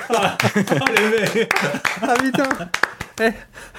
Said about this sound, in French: Moi j'applaudis, c'est énorme.